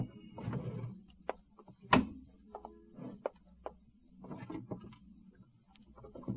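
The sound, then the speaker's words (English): Drawers of a roll top desk in an upstairs tenement room used as an office slide open and bump shut several times, with wooden thunks, clicks and rummaging clatter in between, fairly quiet and with no voices. “Same things in the desk drawers”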